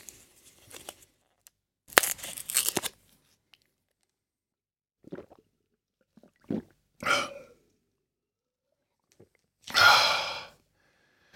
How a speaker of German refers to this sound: Das, was ihr da jetzt möglicherweise gehört habt, wenn es nicht zu subtil war, war das Herausdrücken und Einnehmen einer Kopfschmerztablette.